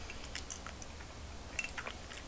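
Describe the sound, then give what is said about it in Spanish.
Someone quietly sips bitter coffee, the first sip of the day, with a few short, soft wet mouth noises and small swallows scattered over a couple of seconds. No one speaks. “Empezar la semana informativa con un buen café amargo es muy necesario, sobre todo en una redacción periodística, así que me voy a dar rápidamente este sorbito.”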